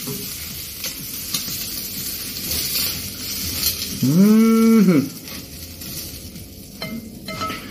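A single drawn-out cow moo, rising and then falling in pitch, rings out loud for about a second over a steady background of crackling, sizzling noise.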